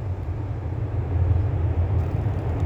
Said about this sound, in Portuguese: Assim como os sons que estão me rodeando nesse momento, os pássaros batendo as asas, os aviões rugindo no céu,